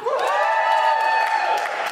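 A show audience, those from Canada, lets out a loud, sustained cheer for about two seconds, voices whooping and yelling together in a bright, steady roar with a rising shout at the start.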